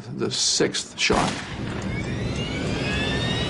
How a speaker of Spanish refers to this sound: La azafata y ambos pilotos son disparados. Van cinco disparos de momento. Y entonces oímos cerrarse de nuevo la puerta de la cabina y otro disparo final, el sexto.